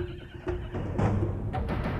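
A horse neighs in a loud whinny that rises and wavers, with a second burst near the end and faint hoof or movement noise underneath, as riders arrive in Jerusalem and are told to dismount from their horses; no one speaks.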